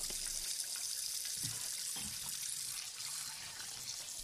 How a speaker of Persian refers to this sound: خب لوبیا سبزا رو که شستم و خوردشون کردم و میذارم کنار کتری برقیم و پر از آب میکنم و میذارم جوش بیاد